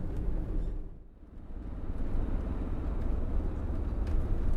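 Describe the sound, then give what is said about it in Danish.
Steady low rumble of a car engine heard from inside the cabin, continuous and fairly loud, with a brief dip in the noise before it swells back up. “Kom nu, lille bil.”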